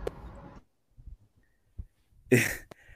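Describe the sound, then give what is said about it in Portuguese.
A single sharp sneeze bursts out loudly after a few soft, low thumps and near-silence, with a brief breathy trail afterward. No one speaks. “saúde, saúde.”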